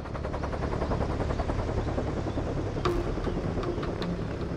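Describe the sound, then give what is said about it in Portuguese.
Loud, steady, intense helicopter rotor noise with a rapid rhythmic chopping over a deep engine roar, constant throughout, with a few sharper bursts near the end. “É o barulho intenso de helicóptero.”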